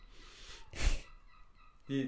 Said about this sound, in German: Das sind die Möwen, bei denen die, die, die vielleicht Möwen? hört. Manchmal hören sich die ganz komisch an, ich bin ja ehrlich.